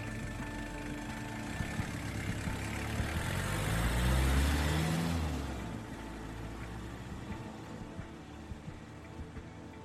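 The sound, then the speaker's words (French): A car engine revs up as a man gets back into his car and leaves, in Lot-et-Garonne, France; its low rumble swells to a peak before steadily fading as the vehicle pulls away, leaving a faint background hum. “Il remonte dans sa voiture et part, en se demandant ce qu'il a bien pu voir ce jour-là dans le ciel du Lot-et-Garonne.”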